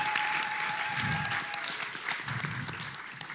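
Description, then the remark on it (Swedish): Steady, dense applause from a large audience applauding the Lord, many hands clapping at once, with a faint murmur of voices underneath. “Vi applåderar Herren.”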